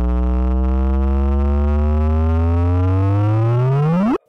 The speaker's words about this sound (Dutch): Een vraagteken uit de kosmos dan. Het is het signaal van een zwaartekrachtgolf, veroorzaakt door het samensmelten van twee zwarte gaten, ergens ver weg in tijd en ruimte, meer dan een miljard lichtjaren van ons verwijderd.